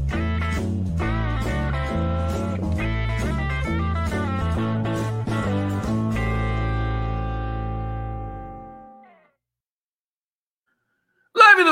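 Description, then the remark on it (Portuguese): A short, bright musical jingle plays with quick punchy notes for several seconds, then holds a final chord that fades out into silence before a brief new sound cuts in. “Vamos botar uma vinhetinha aqui bonitinha para vocês.”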